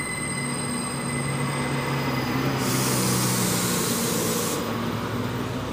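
A metro train in the Naranjal neighborhood rumbles steadily along the tracks, with a sustained metallic screech of wheels rising over the noise midway through before easing back. No one speaks.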